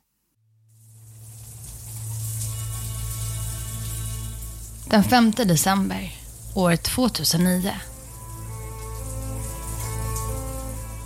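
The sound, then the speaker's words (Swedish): Steady, dense patter of rain in Mexico after hours of rainfall, drumming on a man's soaked jacket, fills the scene with a constant hiss, continuing throughout while a man speaks briefly over it in the middle. “Regndropparna smattrar mot hans jacka som blivit genomblöt.”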